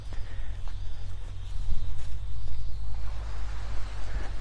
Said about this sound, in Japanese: 波音聞いてたら眠くなってそうなんですね波音なのか私の声なのかっていうところですが